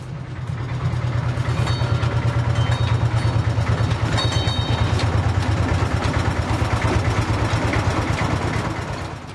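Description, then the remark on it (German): A train rumbles steadily, its engine giving a deep, pulsing chug with a fast regular rhythm and faint higher squeals on top, continuous for the whole stretch with no voices. “This is a train.”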